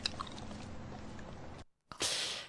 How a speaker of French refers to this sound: entendre les petits gloussements quand ils oh. avalent, quand ils mâchent